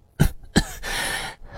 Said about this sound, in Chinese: 纸人发现大江的眼泪之后，就松开了手。他咳嗽两声，说道：